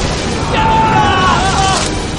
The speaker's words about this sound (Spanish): Cae un rayo.